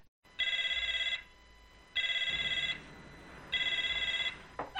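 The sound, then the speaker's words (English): A telephone rings three times in a steady rhythm, each bright electronic trill lasting under a second with short pauses between, fairly loud, with no voices. “I got, I got a phone call to make.”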